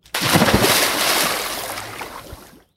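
A heavy splash as a man falls backwards overboard from a boat into water, a sudden loud burst followed by a couple of seconds of churning, sloshing water that slowly fades. No one speaks.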